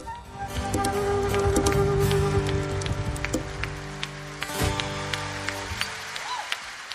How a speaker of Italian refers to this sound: Sono gli applausi di un concerto al Teatro San Carlo di Napoli la sera del 6 febbraio 2012